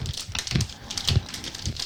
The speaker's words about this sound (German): Auch die zweite lässt sich wunderbar öffnen. Also die lässt sich so, wie ich sonst immer Tüten aufgemacht habe, sehr gut öffnen. Also nicht so von der Seite ziehen, so wie, wie du mir ja mal gesagt hast, man Chips Tüten öffnen müsste.